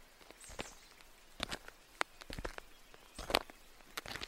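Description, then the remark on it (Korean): Footsteps crunch along a rugged mountain hiking trail at an uneven walking pace, fairly crisp, with scuffs and light rustling between steps and no voices. “한동안 걷고 있자니 구름다리가 보였다.”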